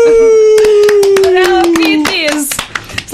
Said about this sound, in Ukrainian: Я, теж чула оплески, я теж це чула.